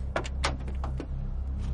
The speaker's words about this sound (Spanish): Abre el maletero.